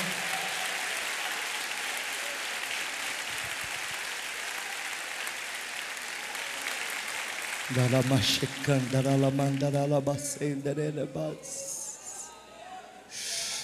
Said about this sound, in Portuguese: Você pode aplaudir o Senhor, glorificar o nome do Senhor?